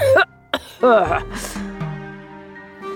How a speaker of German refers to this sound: Mit dem Husten kann ich unmöglich selber gehen.